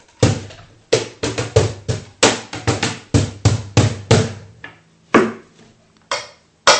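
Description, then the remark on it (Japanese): Hands play a wooden cajon, an unusual one with something like a seat attached to its side, in a lively, steady rhythm, mixing deep bass thumps with sharper slaps, then slow to a few spaced hits near the end. No one speaks. “でもこれちょっと変わった花本だよねなんか普通は普通にただこの四角の箱だったりするけど横に何何かついてるよねこれ椅子みたいのがねこう”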